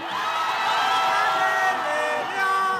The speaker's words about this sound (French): Après un match à rebondissement, la clameur est montée sur la fan zone face à la mer.